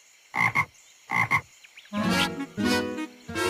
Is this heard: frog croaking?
yes